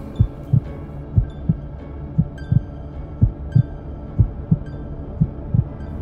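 A slow, steady heartbeat-like throbbing, heard with an ear pressed to a palace wall whose vein-like lines seem to carry flowing blood, sounds in paired low muffled thumps, about one beat per second, over a faint constant hum, with no voices.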